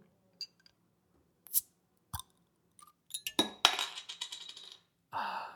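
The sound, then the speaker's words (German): A few glassy clinks and taps, then a beer bottle is opened with a sharp pop, followed by a brief fizzing hiss and a final rustle. Nobody speaks. “Ach, boah, da hat aber plopp gemacht, du.”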